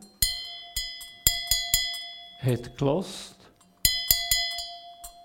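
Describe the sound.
A welded bell is struck repeatedly in quick clusters, each hit giving a bright, clear ringing tone that hangs on; a man briefly speaks between two bursts of strikes.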